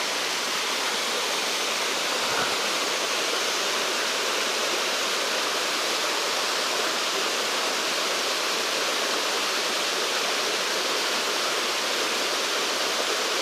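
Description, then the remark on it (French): A steady, powerful roar of a waterfall so tall its top cannot be seen fills the scene, a dense unbroken rush of falling water that stays loud and constant throughout, with no voices. “Je vois même pas le début de la cascade, tellement elle est haute.”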